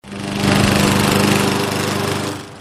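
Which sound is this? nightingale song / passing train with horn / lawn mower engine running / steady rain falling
lawn mower engine running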